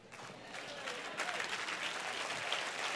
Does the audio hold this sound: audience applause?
yes